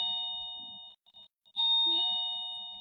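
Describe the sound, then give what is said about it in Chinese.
An electronic doorbell, pressed by a food delivery courier, rings twice. Each ring is a sustained, bright, steady chime, separated by a short pause. No one speaks, and a faint low thump sounds beneath the second ring. “好了，外卖送到了哈，然后外卖在按门铃。”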